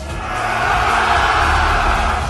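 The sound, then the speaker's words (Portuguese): A crowd shouts together in one sustained, loud roar, a dense wall of many voices with no individual words standing out, holding steady for a couple of seconds. “e eles vão retribuir com o grito deles.”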